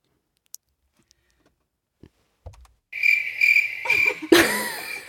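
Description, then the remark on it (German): A few faint clicks, then a loud cricket trill starts up and holds steady at a high pitch, with rustling bursts layered over it toward the end. No voices. “Die Grille. Die beliebte Grille.”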